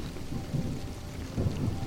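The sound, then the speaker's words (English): Low, rolling thunder rumbles steadily alongside the hiss of falling rain, with a couple of heavier swells in the rumble; no one speaks. “Is um, let me get off this thunder.”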